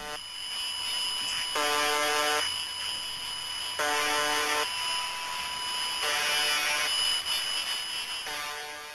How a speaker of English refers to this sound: Radio enthusiasts in the United Kingdom have been documenting a number of odd signals originating in Russia. Uh, the first one of note uh, is UVB 76 and appears to be a uh, broadcast from a transmitter in Povarovo, Russia. Here, let's have a listen.